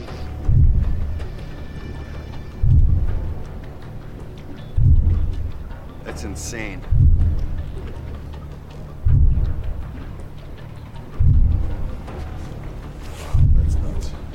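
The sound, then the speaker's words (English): Underwater pile-driving by the wind industry recorded by hydrophone: seven deep, booming thuds about two seconds apart, each rolling off in a long, rumbling decay, with a brief spoken comment partway through. “Illegal Levels Of Whale-Killing Pile-Driving Noise By Wind Industry Documented”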